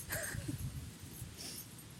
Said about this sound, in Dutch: Oh, hier komt, een hond. Langs rennen.